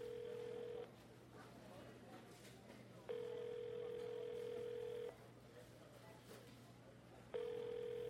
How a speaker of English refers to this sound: After six rings, Leah's voicemail message started.